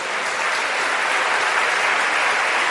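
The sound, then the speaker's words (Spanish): An audience gives the Lord a loud round of applause, a dense, steady wash of many hands clapping that holds at the same strong level throughout, with no individual claps standing out and no voices heard. “Le damos un aplauso fuerte al Señor por eso.”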